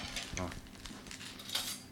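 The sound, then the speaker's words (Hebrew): Light metallic clinks and taps of cutlery being handled, several short bright transients scattered over a couple of seconds, fairly quiet with faint background murmur. “חבל שלא הבאת לי, אבל סכו"ם.”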